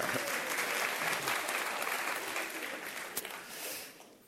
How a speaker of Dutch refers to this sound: Nu mogen de vrouwen applaudisseren.